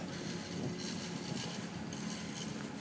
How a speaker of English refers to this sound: Oh, I see somebody's. Uh, I think somebody's mowing that lawn.